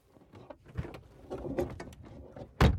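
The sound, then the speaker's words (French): Metal rattles and scrapes as a woman works open the heavy back doors of a stopped truck, ending in a loud clunk as they swing wide. “Elle ouvre les portes”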